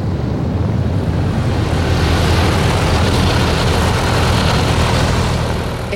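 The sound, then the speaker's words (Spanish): A loud, steady propeller aircraft engine roars continuously, a dense rushing drone with wind noise as the plane, throttled back to 35 inches of pressure, goes into a steep dive at 320 miles per hour, no voices present. “piloto reduce la presión a 35 pulgadas y lanza el avión a una vertiginosa y pronunciada picada, 320 millas por hora.”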